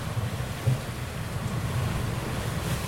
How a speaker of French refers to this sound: Bon, le bateau s'emballe et du coup, je sais plus où j'en étais. Il s'emballe parce que le vent monte.